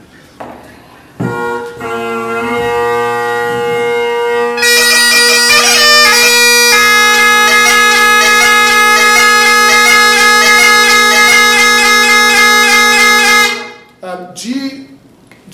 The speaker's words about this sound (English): Um, and so sure enough, like it sounded fine, and then just a tiny bit more pressure, and it started to get hear that gurgly, chirpy, nasty sound.